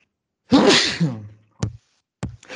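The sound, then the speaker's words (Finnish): A sudden, loud sneeze erupts with a broad burst of noise, followed by a couple of short, sharp clicks or thuds. No one speaks. “no niin, terveydeksi.”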